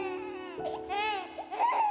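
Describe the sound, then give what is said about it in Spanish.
A young boy, wet with shower water on his face, cries in wavering wails with no pause, the pitch rising and falling across a couple of strained bursts that grow louder toward the end. “El llanto es desgarrador y se me clava por todas partes.”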